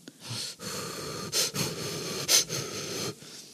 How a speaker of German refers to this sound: Ja, ich hoffe, man hört mich dann nicht mehr atmen.